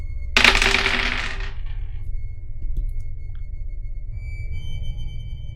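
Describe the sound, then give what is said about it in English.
Dice clatter sharply onto a surface, rattling and tumbling for a couple of seconds before settling, with a few faint clicks afterward over a low steady hum. “Oh wow, I can still hear it. That was a long roll.”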